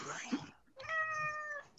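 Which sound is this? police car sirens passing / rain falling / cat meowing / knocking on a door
cat meowing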